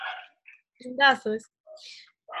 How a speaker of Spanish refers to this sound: Escucho a Blue, pero no escucho a la bubucela. Blue es mi perro.